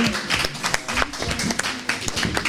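An audience applauds: a steady, dense patter of many hands clapping at once, moderately loud, lasting throughout, with a few voices faintly mixed in.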